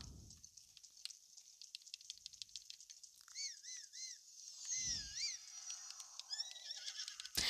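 A horse whinnies in several short, wavering bursts over light ticking and pattering sounds, with a couple of dull low thumps. No one speaks.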